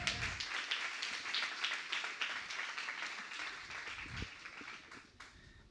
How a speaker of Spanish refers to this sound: Un aplauso.